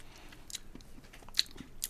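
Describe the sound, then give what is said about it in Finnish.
Wet mouth smacking and lip clicks as a person tastes espresso, smacking to draw air into the mouth, several short bursts at irregular intervals over quiet background noise, with no talking. “Maiskutellaan vähän, että saa ilmaa suuhun ja”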